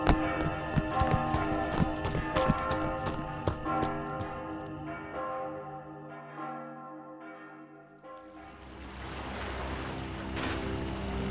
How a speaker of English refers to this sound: That's the church bell on the half hour.